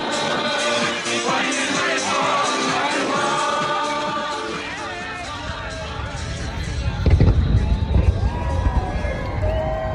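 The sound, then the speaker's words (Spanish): Fireworks for Independence Day, July 4, in the United States burst with deep booms in the second half, over a busy wash of crowd noise and chatter that fills the whole scene. “Estados Unidos, 4 de julio, Día de la Independencia. Si los extraterrestres y Will Smith lo permiten, cohetes, barbacoas, disfraces en algunas zonas del país, lo hemos visto mil veces en las películas.”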